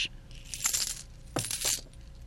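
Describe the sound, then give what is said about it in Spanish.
Coins clink and jingle in two short bursts, as if a handful is being set down and shuffled into place; bright metallic rattling with a brief pause between. “Pero en la noche se levantó varias veces a ver si las monedas estaban en su lugar.”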